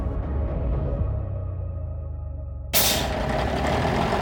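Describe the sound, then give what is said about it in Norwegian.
A heavy bus engine idles with a deep, steady rumble, then a loud, sudden hiss of air brakes bursts in and continues over the engine noise; one of three buses carrying anti-racists from Oslo up the E6 toward Brumunddal on a hot late-summer day, 31 August 1991. “Tre busser med antirasister fra Oslo er på vei oppover E6 mot Brumunddal.”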